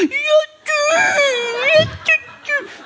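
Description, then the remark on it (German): A pigeon gives high, whiny whimpers that sound like a fussing baby, a few drawn-out wavering cries in quick succession, fairly loud, with no talking. “Es ist eine Taube, die mit, mit der Mensch behandelt wie ein herziges Baby.”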